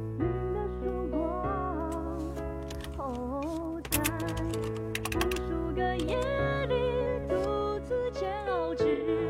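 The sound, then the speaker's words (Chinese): Scattered, irregular keyboard clicks tap away over a steady melodic music track as a message is typed to Mo Ge, the keystrokes coming in short bursts and pauses rather than a constant rhythm. “我得给莫哥打字是吧？”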